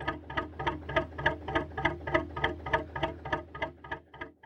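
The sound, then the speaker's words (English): A large two-stroke diesel engine, likely a Lister, on a traditional narrowboat on the River Weaver chugs in a steady, clock-like rhythm of about three heavy thuds per second, loud, as the boat passes by and sails off, easing slightly toward the end, with no voices. “It's, I think it's a Lister that passes by and then sails off into the distance.”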